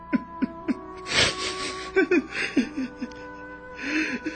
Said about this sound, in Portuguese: você está chorando?